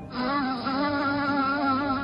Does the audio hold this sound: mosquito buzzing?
yes